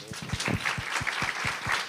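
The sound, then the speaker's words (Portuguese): Audience applause: a steady wash of many hands clapping at once, dense and fairly loud, holding an even level for the whole stretch with no voices on top. “Palmas para eles, que eles merecem.”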